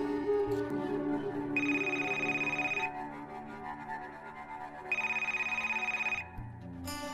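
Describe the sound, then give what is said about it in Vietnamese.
A mobile phone ringtone plays loudly and clearly at 2:30 in the morning, with bright repeating tones in two bursts over a steady melodic musical background, no voices present. “Tiếng chuông điện thoại của Duy bất chợt vang lên”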